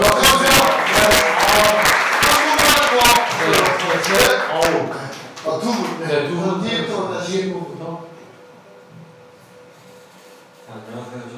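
Audience applause, a dense burst of many hands clapping at once, strong at first and then thinning out and fading over several seconds into quiet murmuring.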